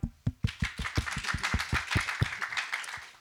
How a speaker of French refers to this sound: Donc c'est une première. Et euh, je pense qu'on peut juste les applaudir pour ça.